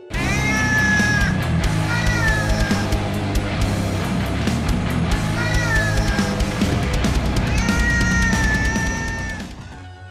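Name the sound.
cats meowing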